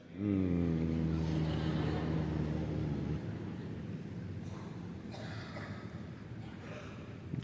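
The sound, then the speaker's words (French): A single low, steady closed-mouth hum of a mantra sounds clear for about three seconds, then gives way to soft, breathy background noise. “Pour émettre ce son, votre bouche doit être fermée.”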